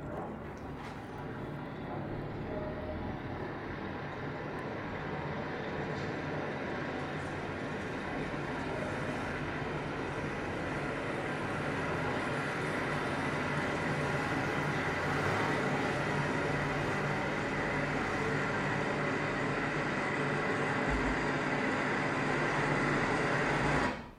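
Factory sirens wail in steady, overlapping tones over a dense rumbling industrial din, loud and unbroken throughout, with no voices; a recreation of a 1922 sound composition from Baku built from industrial sounds.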